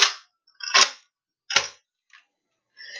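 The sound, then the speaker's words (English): A video game tactical shotgun being reloaded: a handful of sharp, metallic clacks and clicks at uneven intervals, fairly loud, with one faint click midway and no talking. “You can hear me reloading my tactical.”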